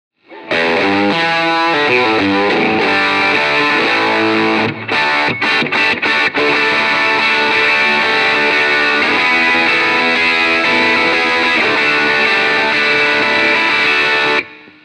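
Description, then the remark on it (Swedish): A heavily overdriven electric guitar plays a sustained, gritty single lead line through a pedal with the drive turned up to the 12 o'clock setting, loud, with a few quick stuttering breaks partway through before ringing out again. No one speaks. “Kan man få ja. lite mer drive? Det kan du få. Klockan 12.”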